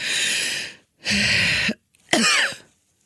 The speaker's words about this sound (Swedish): kommer en host, för det kliar då också.